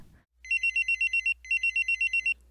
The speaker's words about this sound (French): Pierre cherche d'où ça peut venir. Son téléphone, sa montre, mais il ne trouve pas. L'alarme finit par s'éteindre.